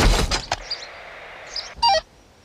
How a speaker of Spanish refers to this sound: Niño, ¿qué hiciste? ¿Qué qué hice? Le di una patada al contenedor